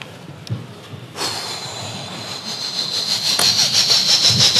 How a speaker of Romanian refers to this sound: Mai trece trenul prin Bucuș. Tre- acum trece.